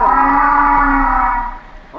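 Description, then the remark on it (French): A loud humpback whale call recorded very close to a hydrophone: one sustained, rich tonal moan with a brassy, trumpet-like quality that holds steady for over a second, then fades out, heard alone. “Ça pourrait complètement être une, euh, une vocalise de, baleine à bosse très proche en fait de l'hydrophone.”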